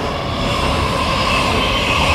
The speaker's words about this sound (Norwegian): Det kommer tog òg. Det er bra. Det er samme ja. toget som går forbi Detroit Kunsthall.